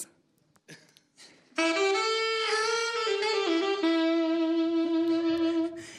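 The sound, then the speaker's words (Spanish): The brass section of a band, on stage at a live concert, blares a bright, sustained chord for about four seconds, shifting pitch a couple of times before cutting off, preceded by a few faint, brief noises. “Por ejemplo, así suenan los metales.”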